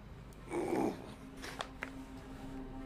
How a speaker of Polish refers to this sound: Pokazuję palcem na was, ale no, no pies dalej szczeka.